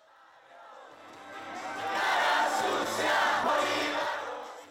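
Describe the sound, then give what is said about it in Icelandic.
A large crowd in the streets of Santiago, Chile, sings and cheers together as the presidential runoff results are known, won by Gabriel Boric; a dense roar of many voices that swells louder midway and stays strong before easing slightly at the end. “Það var sungið og trallað á gödum Santiago, höfuborgar Suður Ameríkuríkisins síle í ferradag þegar úrslitinn úr síðar umferð fósettakostninga þar í landi voru ljós.”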